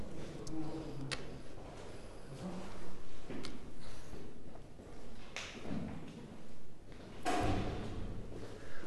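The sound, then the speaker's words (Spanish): A door is pushed shut with a dull thud near the end, after several scattered clicks and knocks of handling, with faint murmuring voices in the background. “¿Puedes cerrar la puerta?”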